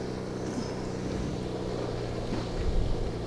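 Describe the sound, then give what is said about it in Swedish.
A boat's engine idles with a steady, low rumble as the boat casts off from the dock and slowly pulls away, bow coming out, accompanied by a constant hiss of wind and water noise. No one speaks. “De kastar ju loss lite sakta men säkert nu.”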